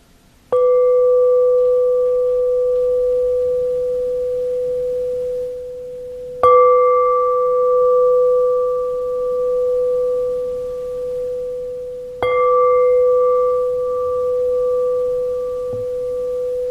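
A meditation singing bowl is struck three times at steady intervals, marking the transition out of a mindfulness meditation, each strike ringing out in a clear, sustained, shimmering tone that lingers and slowly fades before the next. No voices.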